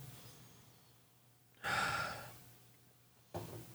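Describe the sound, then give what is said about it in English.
A breathy sniff at a freshly poured beer draws in air for about a second, then fades; after a quiet pause a second sniff begins sharply. A low steady hum sits underneath, and no one speaks. “How's she smell?”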